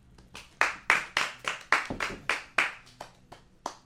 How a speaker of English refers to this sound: My fault, the last one to clap.